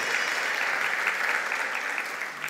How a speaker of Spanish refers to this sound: ¿Cuánto nos da un aplauso al Señor por esto?